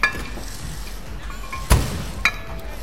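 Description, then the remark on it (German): A gym door bursts open with one loud, sharp crash, followed a moment later by a smaller knock, over a steady low background hum with no voices. “Krachend öffnet sich plötzlich die Tür des Fitnessstudios”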